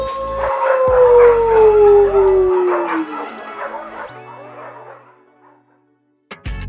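A dog howls loudly, a long drawn-out note sliding slowly downward in pitch, with other wavering howls layered over it before fading out, followed by a brief sharp noise.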